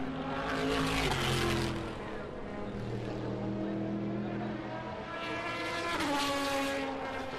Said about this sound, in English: Mainly the Astons going past and yes, the Corvettes, that's what you'll hear, yeah.